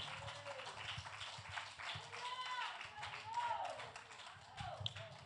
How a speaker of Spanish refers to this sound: Dele el aplauso fuerte al Eterno que Él vive.